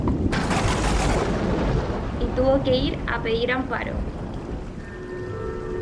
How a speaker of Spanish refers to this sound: Comenzó una tormenta con relámpagos